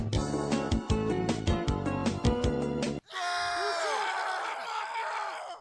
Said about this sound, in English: Man, we really need to work on our crowd reaction.